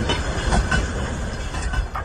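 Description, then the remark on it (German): A train in Russia carrying tanks, other artillery and trucks rolls steadily along the rails, a dense low rumble and broad rushing noise with faint rhythmic clacks from the wheels. No one speaks. “Videos von Zügen, Eisenbahnzügen mit Panzern, mit anderer Artillerie drauf, mit Lastwagen.”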